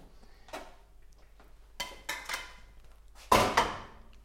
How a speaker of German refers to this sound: Den Rest, der, den Rest der Soße, die man jetzt noch in der Pfanne hat, den gibt man drüber. Nichts verschwenden.